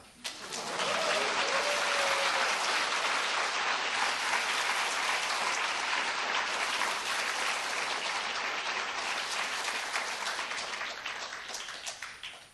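A crowd claps steadily for about twelve seconds, a dense, sustained wash of applause that swells quickly and holds at full strength before tapering slightly at the end.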